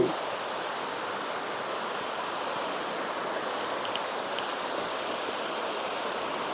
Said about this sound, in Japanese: よいしょ今ね川沿いに降りてきましたちょっとだけ川沿いを、はい、石がゴツゴツしてて